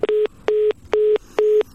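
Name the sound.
telephone line tone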